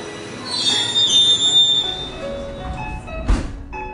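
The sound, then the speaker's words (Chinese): A subway train rumbles along its tracks at a subway station during the morning rush hour, its wheels letting out a high, drawn-out metallic squeal, followed by a short hiss of air from the brakes. No one speaks. “早高峰的地铁站，挤满了行路匆匆、疲惫。”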